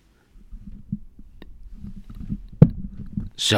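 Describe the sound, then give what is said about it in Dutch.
A microphone is raised on its stand in a studio in Amsterdam: low rumbling handling noise and soft knocks, a sharp clack near the end, then a brief hiss as it settles. Nobody speaks. “En je moet de microfoon iets omhoog doen.”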